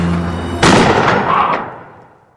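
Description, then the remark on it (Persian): A single loud gunshot sound effect cracks out abruptly, a bullet fired by government forces, followed by a rumbling echo that trails off and fades over a couple of seconds, heard alone with no talking. “یه شب خود جزمه های حکومتی درگیر میشه و با گلوله اونا”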